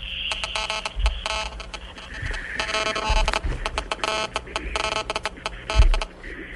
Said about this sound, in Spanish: ¿A qué corresponde? interferencia a la línea por internet, ¿no? Sí, señor. ¡Bravo!